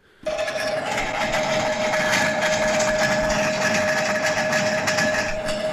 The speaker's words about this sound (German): die haben wirklich Steine in Waschmaschinen gepackt, so draußen auf einer Wiese. Und dann machen die die einfach an